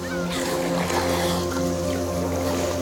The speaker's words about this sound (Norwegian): Det er en kald aprildag i 2019. Det er skyfri himmel, og en fiskebåt kjører rolig på det kalde vannet utafor Ingøy i Finnmark.